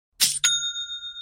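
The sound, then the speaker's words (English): A bright two-stroke metallic chime, quick, with a clear ringing tone that lingers and slowly decays, a cheerful notification ding signaling a sale on an online store. “You know that's the sound of another sale on your online Shopify store”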